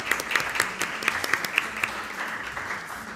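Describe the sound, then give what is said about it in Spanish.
An audience clapping steadily at a Radio 3 event, a dense patter of many overlapping hand claps with a few sharper individual claps standing out, sustained for a few seconds without talk. “Un aplauso para dar un poquito de calorcito.”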